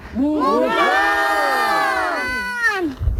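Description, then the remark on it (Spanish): A group of children at an eco-reserve shout together in one long, loud, sustained call to summon the animals, their voices rising and stretching out for about three seconds before trailing off. “Vamos a llamarlos para que vengan, ¿vale? A la de tres.”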